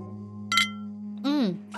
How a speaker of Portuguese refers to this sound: Eu não sei você, mas Chiante me abre o apetite. você tem razão. Tintim?